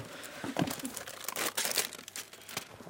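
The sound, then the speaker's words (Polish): Papers rustle and crinkle as someone shuffles through a pile of papers with textbooks hidden beneath them, with irregular crisp bursts of handling noise and no voices. “E, ogólnie tutaj tych podręczników mam trochę pod papierami pochowanych.”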